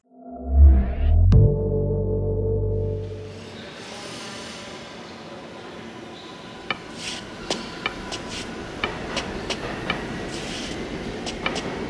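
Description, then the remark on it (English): A heavy low rumble and a brief tonal blast open, then a subway train pulls away, its steady rolling noise accompanied by scattered metallic clicks and rattles, with no voices. “Stop the train!”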